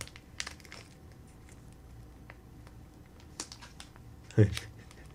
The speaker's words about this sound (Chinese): 然后打开汤底包，这是汤底包吧？对不对？